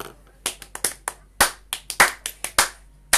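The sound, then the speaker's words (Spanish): A brief round of applause: a dozen or so sharp, bright handclaps in an uneven rhythm, like a small group clapping, with no voices over it. “Aplausos.”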